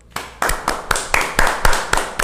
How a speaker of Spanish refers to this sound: déjame iniciar entonces este episodio con un aplauso.